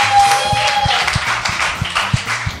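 Steady clapping from a small group applauding performers at the end of a show, a dense patter of hand claps with sharper strikes standing out, over a low rhythmic thumping and a brief faint tone at the start.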